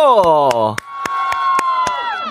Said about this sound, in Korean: 아, 지금 우리 또 환호성 들으셨죠?